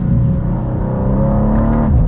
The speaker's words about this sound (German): Beim Runterschalten oder vom Gas gehen gibt es so ein Auspuffbrabbeln. Fump. Fump. Ich weiß nicht, ob man das jetzt so hört aber spüren tue ich es. Und beim Bremsen oder vom Gas gehen, brabbeln. Brabbel, brabbel.